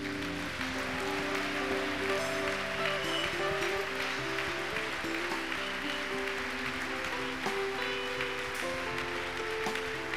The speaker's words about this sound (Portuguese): A igreja pode recebê-los com uma salva de palmas.